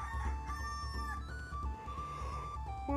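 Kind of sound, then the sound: bird, rooster crowing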